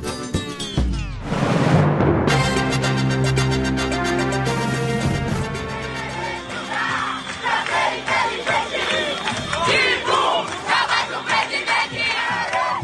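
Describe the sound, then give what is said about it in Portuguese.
A large crowd at a demonstration against cuts to education funding shouts and chants together in loud, sustained waves, voices blending into a dense roar with rhythmic bursts that fill the whole stretch. “manifestações que ocorrem hoje, enquanto estamos gravando, ontem, para quem não está ouvindo, manifestações contra os cortes de verba na educação.”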